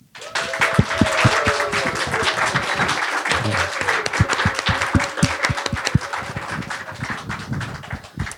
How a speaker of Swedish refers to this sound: Ge en varm applåd till Helena Dahlgren.